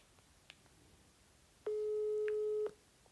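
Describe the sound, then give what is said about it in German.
A single steady electronic ringback tone from a phone on speaker, lasting about a second, clear and fairly loud over a quiet background with a few faint clicks before it. “Da kann ich hier einfach als erstes direkt mal den Stefan anrufen. Ich mache mal hier Lautsprecher”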